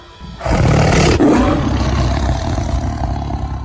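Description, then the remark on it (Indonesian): A loud tiger roar bursts in after a brief quiet moment, then trails into a sustained, rumbling growl that holds strong for several seconds, startling Sultan Trenggono's entourage. No voices present. “Belum hilang rasa terkejut mereka, terdengar kembali sebuah geraman keras dari seekor harimau.”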